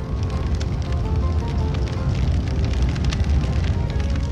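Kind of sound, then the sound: nature, crackling campfire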